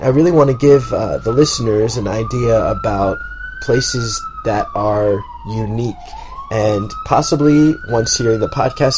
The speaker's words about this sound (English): You can hear the sirens in the background. You definitely know we're in New York.